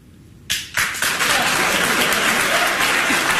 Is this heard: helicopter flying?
no